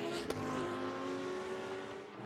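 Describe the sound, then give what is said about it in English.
Race car engines roar steadily on a track as two green cars, the No. 17 AWA Corvette and the No. 43 Porsche, battle, a loud sustained whine with a slight pitch shift as the cars pass, plus one sharp click early on. No one speaks. “Uh, we have two green cars having a bit of a wee bit of a scrap at the moment.”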